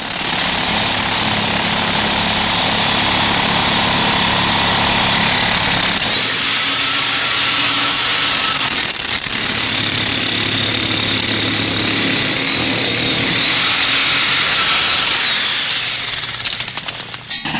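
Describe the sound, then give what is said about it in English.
Harsh industrial music built from loud, grinding power-tool noise, a dense continuous roar with a whining tone that swells and fades twice over droning low hums, with no voices. “so he heard more power tools than musical instruments around the house”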